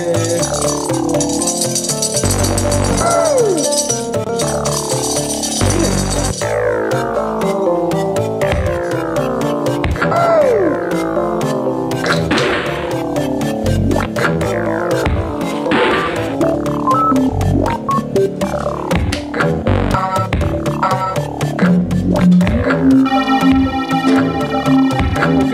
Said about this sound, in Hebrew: זה היה המוזיקה הזאת, שהיא כאילו הקלישאה של מוזיקה מיצרית.